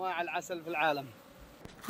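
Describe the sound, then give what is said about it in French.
Thousands of Yemeni honeybees, kept by a beekeeper for honey, buzz in two swelling, wavering bursts with a rich droning hum, then the sound drops to a quieter background with a single sharp click near the end. “Voici les abeilles yéménites, productrices du meilleur miel du monde.”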